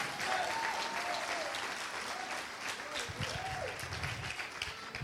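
A crowd breaks into loud, sustained applause for the Lord during a sermon, holding steady for several seconds, dense clapping with a few voices calling out over it.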